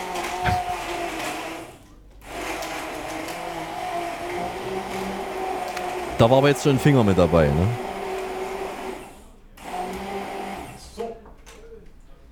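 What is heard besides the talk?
electric kitchen mixer running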